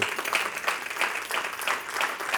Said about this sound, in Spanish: Denle el aplauso al Señor, claro.